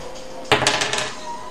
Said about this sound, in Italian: Adesso è un 3 tu gli dai il colpo secco che cade subito, invece il dado va fatto proprio rotolare. Così? Lo lasci, sì, lo accompagni e lo lasci andare.